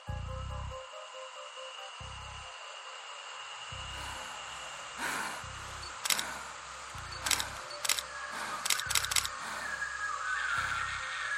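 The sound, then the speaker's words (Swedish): A series of sharp camera shutter clicks, some single and some in quick bursts, taken at night in pitch darkness around 1:30 a.m., over a low ambient drone and hiss, with no one speaking. “Det är inte förrän under natten den 8 april, ungefär 01.30, som kameran används igen.”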